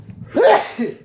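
A single sharp sneeze bursts out, loud and abrupt, with a brief breathy tail and a soft vocal trace after it.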